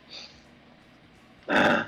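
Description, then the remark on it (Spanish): A faint, brief sniffle, then after a short pause a loud, breathy exhalation pushed out through the nose, like someone with a runny nose. No one speaks. “Moqueo, exhalación.”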